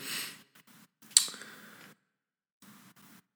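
A few deliberate, demonstrative breaths: a long airy exhale, then a sharper forceful puff of air that trails off, followed after a pause by softer breathing. No one speaks.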